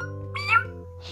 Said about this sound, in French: Et là, quand elle est là, dans la foule, elle entend un miaulement de chat.